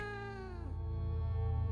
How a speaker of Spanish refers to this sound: Después de eso nunca recibí reportes similares, y aunque regresé al área, no volví a escuchar tan peculiar maullido cabe la posibilidad de que algún estúpido chico estuviese jodiendo a la gente que pasaba por ahí, pero debo admitir que fue raro.